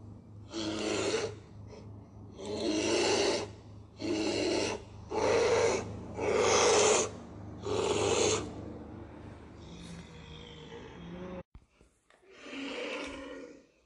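A huge bear roars in a string of about six loud, rough, raspy bursts, each roughly a second long, followed by quieter, ragged growls, at a shallow stretch of clear river with a bed of small stones. No talking.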